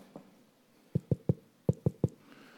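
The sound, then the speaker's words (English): Two quick bursts of three firm knocks on a door, fairly loud, with a short pause between the sets and no voices. “He closed the doors, escaped down the toilet, and let this guards knocking on the door.”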